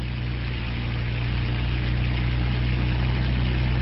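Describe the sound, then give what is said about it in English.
A steady, loud engine roar with a deep droning hum and strong low rumble as a hovercraft rises from the sand of a beach, turns and speeds out across the waves, continuous with no voices. “Rising from the sand, the vehicle turns and speeds out across the waves.”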